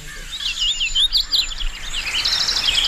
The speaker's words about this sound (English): today's Talking Birds featured feathered friend, Setophaga citrina, the hooded warbler